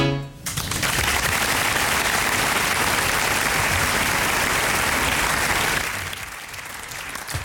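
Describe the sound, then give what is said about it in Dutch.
An audience breaks into loud, sustained applause, a dense wash of clapping that holds steady for several seconds before tapering off near the end. “Applaus.”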